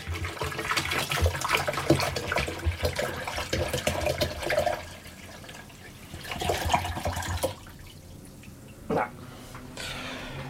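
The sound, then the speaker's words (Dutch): Photographic developer is poured steadily from storage tank number 3 into storage tank number 1, a splashing gush that runs for several seconds, eases, then ends with a few short trickles and drips. “heb ik de inhoud van voorraadken nummer 3, die op dat moment gevuld was met de ontwikkelaar, overgegoten in voorraadken nummer 1.”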